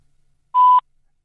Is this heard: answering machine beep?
yes